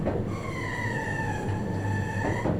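A commuter train rolls into a terminal station, its wheels giving off a steady high metallic squeal over a continuous low rumble and hum, with no one speaking.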